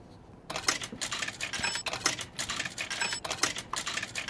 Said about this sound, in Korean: 아, 동전을 넣는 소리네요. 뭐 쨍그랑 소리도 나고 네, 동전 소리입니다.